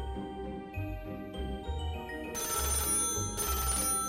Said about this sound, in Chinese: 这个时候，厨房传来了电话铃声。但每一个人却都动也不动的专心继续吃这个莉莉阿姨的水果派，没有人注意到电话响了。